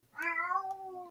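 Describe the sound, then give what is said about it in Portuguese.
A single drawn-out meow from a female cat, clear, with a rising then slowly falling tone lasting about a second, heard on its own without any talking. “a gata do Pedro, reclamando sobre a tecnologia”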